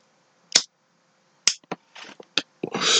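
A lighter is flicked several times to light a Newport cigarette, sharp irregular clicks with brief scratchy rasps between them, ending in a short burst of hissing noise.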